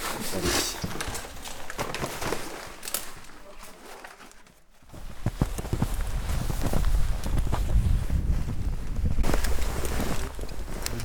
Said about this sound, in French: bruit de la neige qui crie